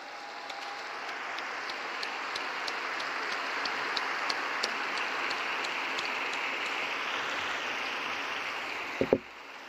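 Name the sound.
crowd applause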